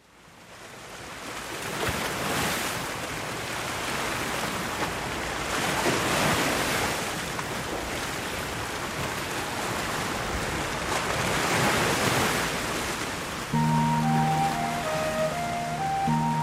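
Ocean waves roll in and break in broad, hissing surges that swell and recede every few seconds, with a soft musical melody fading in near the end.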